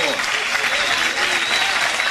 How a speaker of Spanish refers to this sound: Pero vamos a comenzar con el espectáculo. Regálanos un fuerte aplauso.